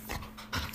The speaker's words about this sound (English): If you hear a bunch of, that's just the dog. She's all excited.